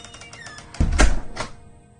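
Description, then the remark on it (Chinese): A door shuts with one dull, low thud, followed a moment later by a fainter click, then quiet. No voices are heard. “听到关门声，张志田还是有些怅然若失。”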